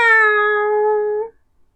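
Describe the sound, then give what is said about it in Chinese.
A single drawn-out cat meow, held at a steady, fairly high pitch for just over a second before stopping abruptly, with no talking around it. “呜哈哈，呜哈哈， 喵喵。”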